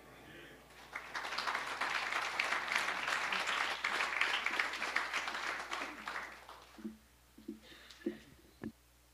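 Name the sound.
audience applause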